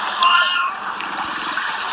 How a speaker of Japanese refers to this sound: 猫がたくさん周りにいますね